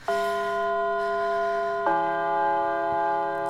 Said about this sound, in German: Also das war der ne? Schulgong in meiner Schule. Der Lehrer beendet die Stunde.